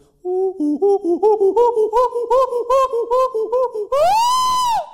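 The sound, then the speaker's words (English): A human voice imitates a chimpanzee, pumping out rapid rhythmic hoots that rise in pitch and intensity, then ending in a long loud screech, clear with no talking. “Chimpanzee sounds like”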